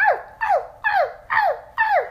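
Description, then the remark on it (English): A voice imitates a small yappy dog, letting out five quick, high-pitched yips in a steady rhythm, each a sharp bark that drops in pitch, fairly loud. “do dogs even bark like that? Arf. Some do. Yeah, some do.”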